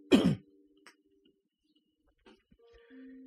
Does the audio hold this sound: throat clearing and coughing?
yes